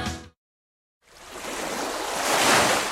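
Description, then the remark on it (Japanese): Ocean surf at Tsushima, Nagasaki Prefecture, Japan, where large amounts of marine litter wash ashore, rushes in after a brief silence, a broad hissing wash of water that swells steadily louder toward the end, continuous with no voices. “大量の海洋ゴミが流れ着く長崎県対馬の海”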